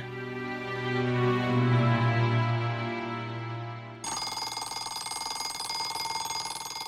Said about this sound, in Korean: 매일 아침 새벽에 똑같은 시간에 자명종이 울리면 내 몸의 컨디션이 어떻던 내가 기분이 어떻던 상관없이 일어나야 되는 거잖아요.